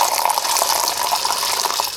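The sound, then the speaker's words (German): A steady jet of water splashes and gushes into a cup held under one of two water jets coming out of a wall, iron-smelling water, a continuous bright hiss of running water with no pauses and no voices. “Halten wir mal eine Tasse drunter.”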